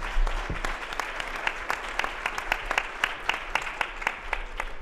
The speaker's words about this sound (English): So a round of applause for uh, th- this panel.